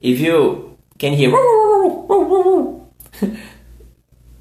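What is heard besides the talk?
dogs barking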